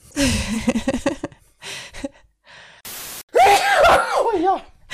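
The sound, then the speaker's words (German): A single sharp, hissing sneeze caused by hay fever bursts out mid-clip, brief and fairly loud, set between stretches of laughter and animated, high-pitched voices. “Gesundheit.”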